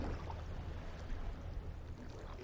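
Small waves lap steadily against the side of a ship sailing in the middle of the sea, a soft, continuous watery wash with low sloshing underneath, moderately quiet, with no voices.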